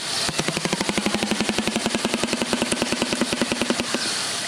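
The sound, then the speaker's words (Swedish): Rapid hammering calls from a swamp animal clicking with its throat, a fast, steady train of sharp pulses lasting several seconds, loud, like a nail gun fired quickly. No one speaks. “Det, det där är liksom ett hamrande ljud. Som, som en, alltså någon som kör en spikpistol jävligt fort.”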